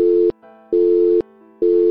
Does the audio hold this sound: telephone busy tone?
yes